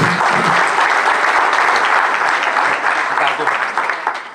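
An audience applauds steadily, a dense wash of many hands clapping at a fairly loud, even level that tapers off slightly toward the end.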